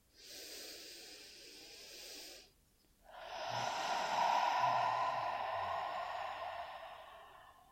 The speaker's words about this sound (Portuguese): Como que é o som, né? Da onda do mar, quando ela quebra na praia, tem aquele som Se você puder fazer esse som, faça esse som, permita que esse som seja sua âncora com o momento presente. Então, inspira profundamente.